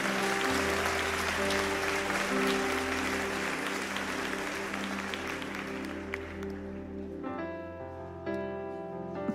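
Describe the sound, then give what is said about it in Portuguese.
An audience claps loudly and steadily for Jesus for several seconds, the dense applause fading near the end, while sustained organ or keyboard chords play underneath throughout. “Bota salão de palmas para Jesus para a gente ir para o próximo ponto.”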